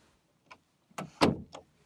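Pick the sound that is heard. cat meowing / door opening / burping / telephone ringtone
door opening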